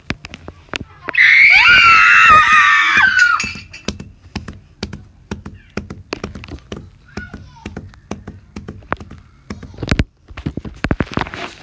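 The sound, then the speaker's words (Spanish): A high, piercing scream from children rises loudly for about two seconds in a forest, while a steady clip-clop of trotting horses' hooves continues throughout, tapping in a brisk, uneven rhythm before and after the scream. “Eran caballos que estaban trotando y niños gritando.”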